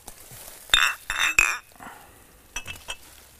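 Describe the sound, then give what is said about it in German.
Glasses clink together in a toast, three bright ringing taps in quick succession, followed by a couple of softer clatters, with no talking. “Zum Wohl.”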